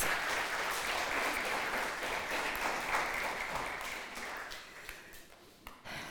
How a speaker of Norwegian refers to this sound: Dere gjorde en veldig god jobb som eh, disipler og vind. Ja, må få en applaus.